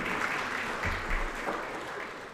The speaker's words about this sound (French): D'accord. On l'applaudit. Merci pour l'intervention.